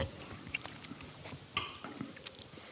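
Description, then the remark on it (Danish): Soft mouth sounds of someone chewing a bite of food with lots of fish sauce, with small wet clicks and crunchy bursts scattered irregularly over a couple of seconds, no talking. “Og fik jeg en bid med masser af fiskesovs.”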